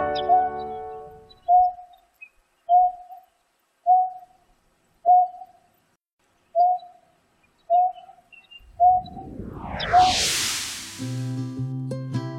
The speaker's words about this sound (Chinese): 哦，很明显是一种鸟的声音，那是哪一种鸟呢？